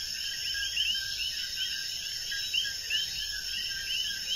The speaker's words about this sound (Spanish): Y ahí estamos disfrutando de los coquís con los grillos que se entrelazan, esos sonidos, con esta tranquilidad absoluta.